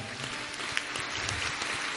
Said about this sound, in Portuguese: Agora é tua hora de aplaudir o teu irmão. Aplauda ele, vai.